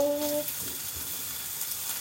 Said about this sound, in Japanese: パチパチいってる卵とポークが焼けたら粗熱を取りましょうね